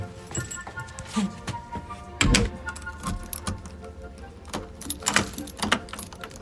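House keys jangle and clink in several short bursts as people leave their home in Amsterdam, with a louder rattle midway, over a low background rumble and some faint talking.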